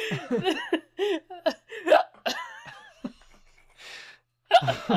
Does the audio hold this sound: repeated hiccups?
yes